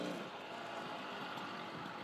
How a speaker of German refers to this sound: Es ist ein bisschen viel Verkehr